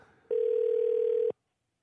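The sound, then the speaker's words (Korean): A single steady telephone dial tone sounds for about a second, loud and clear, as a call is placed to a listener. It follows a faint low murmur and cuts off abruptly into silence. “3737님을 전화 한번 걸어보도록 하겠습니다”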